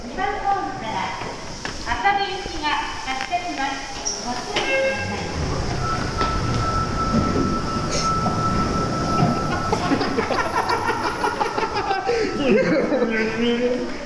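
Steady rumble and clatter of a Sapporo Municipal Subway Namboku Line car in motion, recorded inside the train in Hokkaido, Japan, with rhythmic wheel clicks, a sustained metallic whine, and occasional squeals, loud throughout the whole stretch.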